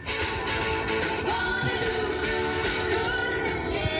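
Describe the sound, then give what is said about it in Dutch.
A pedestrian crossing signal at a zebra crossing in front of Ahoy plays a steady, busy musical sound from the traffic light speakers, loud and continuous for the whole stretch, with no one talking over it. “Want dan hoor je dus dit uit de speakers van het stoplicht.”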